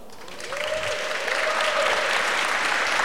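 An audience of people who serve the Lord give themselves applause, which swells within the first half second, then holds as a steady, dense wash of clapping. No one speaks over it.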